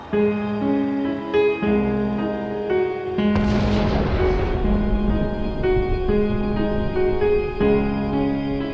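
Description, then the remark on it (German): Low rumbling thunder rolls in under steady piano notes, swelling into a broad, loud crash partway through and then lingering as a dark rumble beneath the continuing melody. “Es gibt Spieluhren, die bedrohlich vor sich hin klimpern, während das Klavier von Donnergrollen untermalt wird.”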